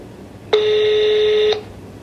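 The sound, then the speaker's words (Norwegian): A single steady telephone tone sounds for about one second, loud and clear against a quiet background, with no voices present, as VG journalists phone a man. “ringt mannen.”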